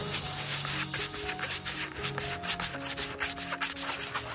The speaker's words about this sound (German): Dann tust du es ganz vorsichtig weg, drehst das Messer um und fährst wieder wellenlinig so runter. Dann gibt es einen Achterlauf, dann Stoßriemen und dann Streichriemen. Streich, Streich, Streich, Streich.